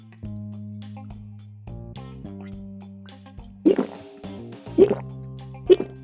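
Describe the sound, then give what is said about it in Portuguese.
Three wet gulping sounds of someone swallowing water sipped from a thermal cup, spaced about a second apart, stand out over a soft, steady music bed with no talking. “E no 3 nós vamos tomar o golinho d'água e também um Glup.”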